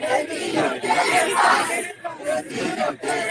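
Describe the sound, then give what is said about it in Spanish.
A large crowd shouts and cheers continuously at a political campaign rally, a loud, dense wash of many voices with rhythmic swells and brief dips, like chanting. “Nada más para que escuchen los gritos que hay aquí, sociedad.”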